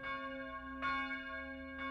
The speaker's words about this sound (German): Die Zeiten stehen auf Sturm. Da gilt es zu läuten. Die Gebetsglocke, die Bußglocke und die Sturmglocke.